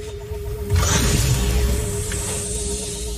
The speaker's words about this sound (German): wie sich dann eine Ladeluke, dort wo die Waren ja wahrscheinlich dann waren, wo ihr hochgekommen seid damals, wo sich Ladeluken öffnen.